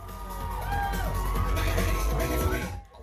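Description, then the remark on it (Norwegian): A crowd squeals and cheers loudly and continuously at the Open Drag Stage show in the basement at Jungs, as the group Princess Elicious opens with a lipsync. High shrieks and whoops rise over a dense roar of voices with a deep rumbling backdrop, before fading abruptly near the end. “Publikum hviner.”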